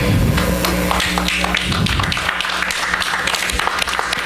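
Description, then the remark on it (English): A smattering of applause in mission control as the IM team confirms its Odysseus lander is on the surface of the moon and transmitting: many hands clapping in a loose, uneven patter that holds steady for several seconds over a low, constant background hum. “That's a smattering of applause.”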